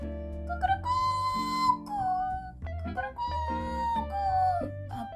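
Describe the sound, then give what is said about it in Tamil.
A voice mimics a rooster crowing at daybreak, two long, wavering crows one after the other, fairly loud, over a steady bed of background music. “அப்படின்னு சேவல் கத்துது”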